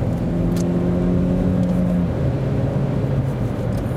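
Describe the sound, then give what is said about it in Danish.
A car engine accelerates to overtake another vehicle, with a loud, steady droning hum, its pitch dropping about halfway through as though shifting gear, then pulling on again. No one speaks. “Lige om lidt, så laver vi os lige en overhaling.”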